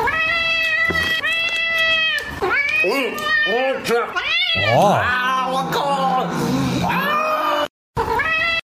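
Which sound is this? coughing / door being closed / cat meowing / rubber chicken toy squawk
cat meowing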